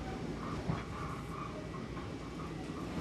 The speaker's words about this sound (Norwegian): Jeg sitter på toget til Long Island i New York.